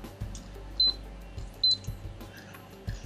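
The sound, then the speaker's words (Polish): An induction hob switched on at boost, level 9, to boil water: two short, high electronic beeps from the controls over a steady, low hum that continues throughout, with a few soft knocks and no talking. “I tu się pojawia taki dźwięk, którego nie ma przy kuchni gazowej. On tak troszkę buczy.”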